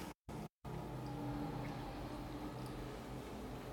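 A train rumbles past outside, a steady low roar with faint tonal hum that stays fairly constant throughout, muffled and quiet, with no voices.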